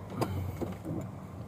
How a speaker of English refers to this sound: I'm already in the car.